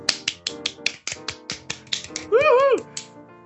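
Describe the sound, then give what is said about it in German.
Hands clap in a quick, steady rhythm, about a dozen sharp, bright claps, applauding a female singer after her piece ends in a drum roll and she bows to the audience, with a short sung or cheering voice rising briefly over them near the end. “Komm, wir müssen klatschen”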